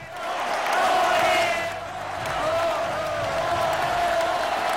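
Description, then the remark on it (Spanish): A crowd gives a loud, sustained ovation for those who organize the cycles held in the Community of Madrid, Andalusia and Castile and León. Dense clapping and cheering voices hold steady throughout, with a brief dip near the middle before swelling again. “Así que una ovación bien fuerte para quienes organizan y para quienes lo hacen posible.”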